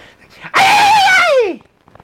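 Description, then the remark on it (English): A voice imitates the squeal of a truck's replaced belt when the truck starts up: one loud, high, strained squeal held for about a second, wavering slightly, then sliding downward as it fades. Quiet background noise surrounds it. “one of the belts broke, so they replaced the belt. And now when I start up my truck, it sounds like I'm slaughtering a million puppies with the noise it makes.”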